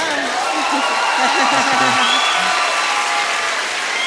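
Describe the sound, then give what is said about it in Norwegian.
Steady, dense applause from an audience fills the whole stretch, a loud continuous clatter of many hands clapping, with a few voices and faint cheers rising underneath. “Gi en applaus.”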